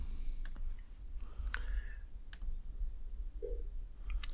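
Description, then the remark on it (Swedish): A handful of light, sharp computer mouse clicks, clicking on the 1986 list, come at irregular intervals over a low, steady background hum, fairly quiet, with no one speaking. “Nu klickar vi på 86 års lista här då helt enkelt.”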